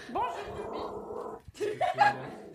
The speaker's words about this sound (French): Oula D'où le petit chien qui aboie ah.